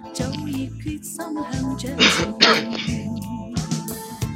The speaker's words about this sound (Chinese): 我现在听到有人咳嗽，都愣了一下。